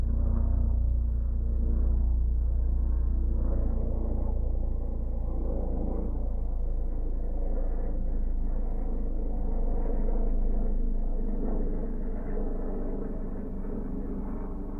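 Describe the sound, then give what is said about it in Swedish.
A helicopter passes with a loud, steady, low rumbling drone that holds for about fifteen seconds before easing slightly at the end. No one speaks. “Och nu kommer en helikopter.”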